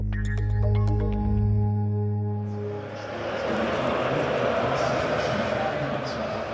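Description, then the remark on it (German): A sustained electronic tone fades out, giving way to the dense, steady roar of a large stadium crowd, many voices blending into a loud, continuous murmur. “So, Freunde, so klingt das schon mal so ein bisschen hier im Stadion.”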